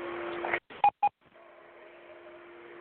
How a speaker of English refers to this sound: Well, that's the second beep, so you know what that means.